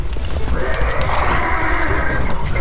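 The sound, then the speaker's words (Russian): Horses of a mounted detachment with dogs, in a village near Kostroma, neigh in a long, wavering whinny over a steady, muffled clatter of hooves clopping, the sound loud and continuous with no voices. “Ой, какой-то отряд на конях с собаками”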